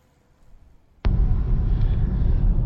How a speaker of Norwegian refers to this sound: Da sitter jeg faktisk i en bil og kjører med Lars Petter Norhaug.